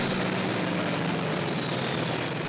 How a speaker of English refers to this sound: You are listening to the sounds of an F4U Corsair, a clean, sleek aircraft with a 2,000 horsepower engine. Its rated speed of 415 miles per hour at sea level made it the fastest aircraft in the Pacific Theater at the time,